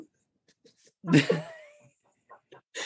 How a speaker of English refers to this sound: the dog yowling.